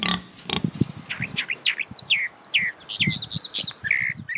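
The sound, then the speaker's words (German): A single calandria, a small plain grey songbird, sings a rapid, varied string of bright whistled and warbled phrases, clear, mixed with low, throaty grunting notes throughout; recorded in Uruguay. “Das ist ein einziger Vogel, der da singt. Ich vermute, dass es eine Kalandria ist, ein kleiner, unscheinbarer grauer Vogel, der da einfach sein Lied sang.”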